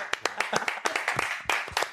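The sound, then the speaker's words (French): A small group of speakers at an event applauds the organizing team, with quick, irregular claps overlapping into a steady crackle of moderate loudness that continues throughout. “Tous les intervenants applaudir l'équipe.”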